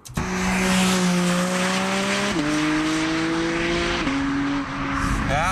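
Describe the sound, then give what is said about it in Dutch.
A Porsche 718 Cayman GT4 RS sports car engine roars steadily at high revs, its pitch climbing and then dropping in sharp steps as gears shift, loud and sustained throughout with no talking. “De Porsche 718 GT 4 RS.”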